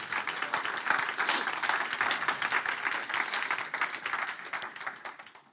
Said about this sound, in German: Ihr dürft auch applaudieren.